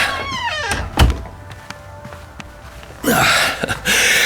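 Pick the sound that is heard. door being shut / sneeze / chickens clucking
door being shut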